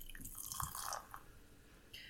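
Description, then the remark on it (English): A pale straw-colored beer with a white foamy head is poured into a glass, a short splashing gurgle that trickles and fizzes for a couple of seconds before tapering off, with no voices. “and the pour.”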